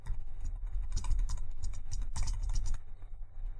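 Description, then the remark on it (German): Quick, uneven keystrokes tapped on a computer keyboard as a password is entered, a short burst of clicks against a low steady hum, with no voices. “Und zu guter Letzt gebe ich das Passwort ein.”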